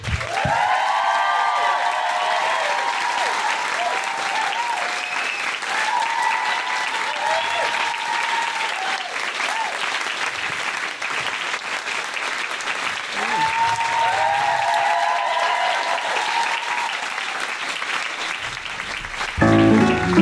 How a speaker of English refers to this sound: Um, can we have a please, please, please have a big round of applause for our very special guests